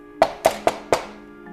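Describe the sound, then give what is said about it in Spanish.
Someone knocks on a door during a storm: four firm knocks in a quick, even rhythm, fairly loud, each with a short hollow ring that fades before the next. No voices. “De pronto se oyó un fuerte ruido. Alguien llamaba a la puerta.”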